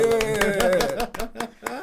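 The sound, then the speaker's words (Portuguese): A short burst of audience applause: rapid, uneven claps over a sustained voice with a steady pitch, thinning out into a few separate claps by the end. “Daí, uma salva de palmas pra”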